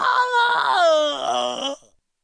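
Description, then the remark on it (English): A voice imitates a drawn-out, agonized moaning cry from a boy in the neighbouring stall of a school bathroom, loud, with a wavering pitch that slides downward before trailing off into silence after nearly two seconds. “I recognized that agonized cry.”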